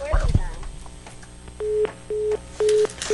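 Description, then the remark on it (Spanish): A brief clatter, then a telephone disconnect tone as a caller's call to a call-in show is cut off: four evenly spaced, steady mid-pitched beeps, each about a quarter second long, clear and fairly loud on the line. “Se cortó.”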